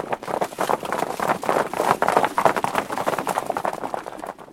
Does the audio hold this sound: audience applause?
no